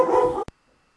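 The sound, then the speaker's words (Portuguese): A single loud dog bark lasting under half a second, followed by a brief click and then near silence. “De volta aqui, a campanha tocou, o cachorro latiu.”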